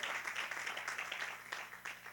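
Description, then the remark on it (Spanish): An audience applauding the Lord at a church service at night, a dense, steady wash of many hands clapping that continues throughout at a moderate level, with no clear voices standing out. “Denle un aplauso al Señor en esta preciosa noche.”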